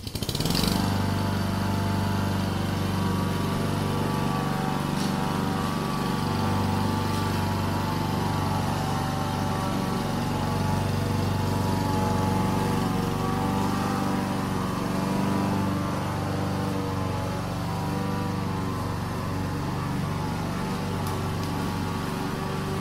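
A lawn mower engine, switched on for a moment, runs steadily and loudly for the whole stretch, a constant buzzing drone with a slight rough flutter and no voices.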